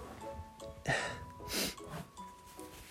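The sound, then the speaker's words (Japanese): A sharp sneeze bursting out in two quick explosive blasts about half a second apart, with low background hum and no talking around it. “あやべくしゃみ出る すいません”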